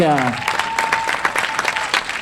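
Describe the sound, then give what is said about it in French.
Dense, steady clapping from a crowd applauding the winner of a new edition of a competition, a continuous wash of many hands with a brief sustained tone fading in at the start and no talking over it. “Des seuls applaudissements pour Christophe Michalak”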